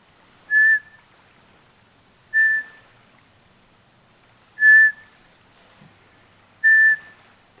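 A Eurasian pygmy owl's autumn song, heard around five in the morning on the shore of Lake Saimaa: four short, clear, even whistles spaced about two seconds apart, each rising then holding steady, faint against a quiet night background.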